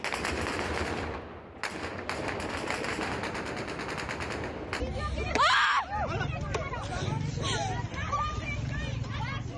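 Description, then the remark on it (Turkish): Rapid bursts of gunfire crack repeatedly as the Taliban fire into the air to disperse a women's protest in Afghanistan, over a loud, agitated crowd of shouting voices, the sharp shots fading after a few seconds while the crowd noise continues. “Protestoları dağıtmak için sadece havaya ateş açmakla kalmadı Taliban.”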